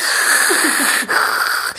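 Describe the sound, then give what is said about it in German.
An imitated long, rasping, wheezy breath, loud and steady with a thin whistling tone through it, like an 80-year-old chain smoker struggling for air, briefly catching once near the end. “Die atmet wie so ein 80-jähriger Kettenrauch.”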